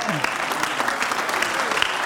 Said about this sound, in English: Why don't we praise him right now? Stand to your feet and just praise him. Amen. Give him a happy hand clap of praise as we just worship.